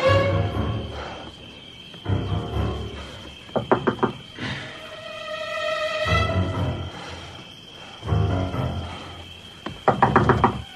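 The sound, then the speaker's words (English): Two bursts of quick knocks on a door to wake LaFleur, each a rapid run of three or four firm raps several seconds apart, over a steady low hum and faint chirping night ambience. “You want to knock?”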